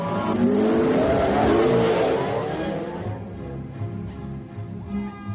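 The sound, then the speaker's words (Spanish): Speeder bikes roar off at full throttle as an Ewok flees on one and three soldiers chase it on theirs, a loud rushing engine whine that holds for a few seconds before thinning out and fading as they race away. “El Ewok se va con la moto. Tres soldados lo siguen en sus jets.”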